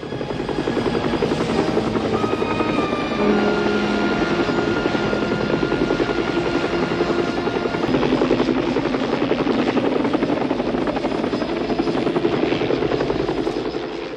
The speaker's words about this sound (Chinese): 就在此时呢，搜救队的直升机正巧路过，呼啸的螺旋桨惊走了母狮。